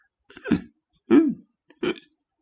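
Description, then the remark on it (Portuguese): A voice imitates sobbing: three short, choked gasping bursts spaced about half a second apart, fairly loud, with brief silences between them and no talking. “Quando estás a chorar, fiz um assim. Saiu mesmo.”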